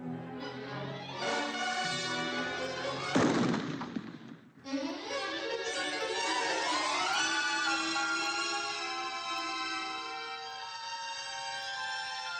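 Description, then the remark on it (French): A single sharp gunshot from a hunter bursts out over sweeping orchestral music in a film, leaving a brief noisy echo before the strings and brass swell back in. “Bambi qui entend un jour un bruit de tonnerre et qui réalise qu'il a perdu brutalement sa mère, tuée par un chasseur”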